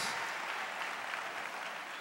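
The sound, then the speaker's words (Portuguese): An audience claps steadily for pastors of the church in Campo Limpo de Goiás, a dense, continuous wash of many hands applauding at an even level throughout, with no voices standing out. “Vamos aplaudir, pessoal.”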